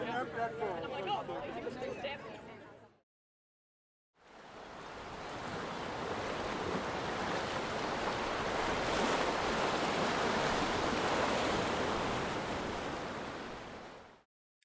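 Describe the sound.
Steady ocean surf rushes and roars, a broad hiss of waves breaking on shore that swells and holds before fading out. Brief indistinct voices come first, followed by a short silence.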